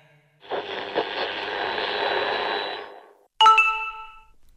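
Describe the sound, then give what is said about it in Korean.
A phone's text message alert: a soft whooshing rush lasting a couple of seconds, then a single bright, ringing chime that fades quickly. No voices, just the tone on its own, clear. “어? 문자 왔네.”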